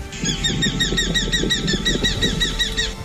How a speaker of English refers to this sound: The bat falcon, Falco rufigularis. Today's Talking Birds featured feathered friend.